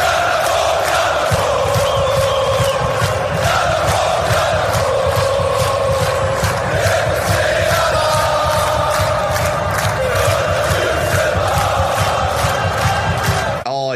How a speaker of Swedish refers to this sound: Ja, får vi höra klacken.